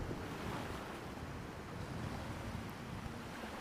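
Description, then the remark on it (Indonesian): Waves crash and churn against rocks below a cliff in a steady, dense roar of surf, with gusty wind washing over it throughout. No voices. “Dari bawah tebing, terdengar suara ombak pecah dan berdebur di permukaan batu.”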